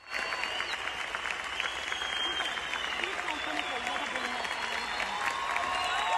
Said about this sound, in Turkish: Sahneye çıkan sanatçı dakikalarca alkışlandı.